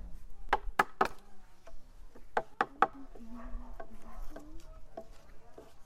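Very light wooden mallets tap sharply at an uneven pace while frames for windows are being assembled, about ten knocks in all, some in quick pairs, with a low hum and faint murmuring voices underneath.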